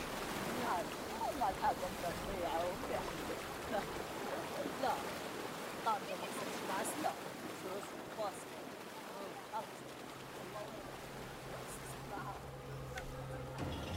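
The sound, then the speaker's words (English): Small boats knock and scrape against the port side of a ship's hull amid steady sloshing water and wind, with faint voices calling out in Arabic in the background. “Some time later, the sound of small boats rub up against the port side, and voices call out in Arabic.”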